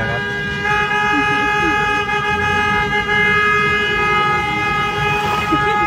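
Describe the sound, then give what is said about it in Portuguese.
A car horn blares loud and steady for the whole stretch, one long unbroken honk over rumbling street noise, with faint voices underneath; a driver honking in favour of Lula's impeachment, in a video from Joinville. “favor do impeachment do Lula, buzina.”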